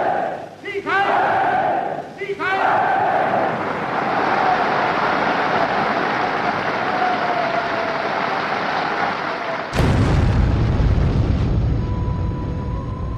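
A large crowd cheers and chants in a reverberant hall at a Nazi party gathering after a speech, then a sudden, loud bomb blast cuts in near the end, devastating the hall, followed by a heavy, rumbling roar that slowly fades.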